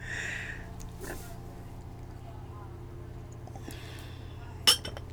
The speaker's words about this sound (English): Gotta pour the wine because everything is just a little bit better with a beautiful glass of wine.